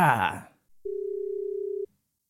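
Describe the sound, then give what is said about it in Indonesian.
A brief voice at the start, then a steady, unbroken telephone dial tone hums at an even pitch for about a second before cutting off abruptly, as a phone call is being placed. “ayo kita langsung telepon aja”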